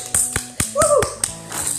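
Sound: clapping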